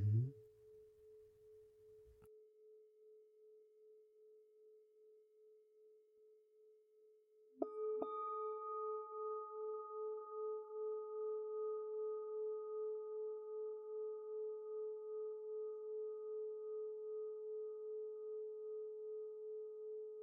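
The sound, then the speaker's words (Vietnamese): A meditation bell hums with a steady, pure tone, then is struck again partway through and rings out brighter and fuller, its overtones lingering evenly to the end with no voices. “tôi để cho tiếng chuông ngân vang trong lồng ngực cho qua đi những bực tức kỳ vọng đòi hỏi”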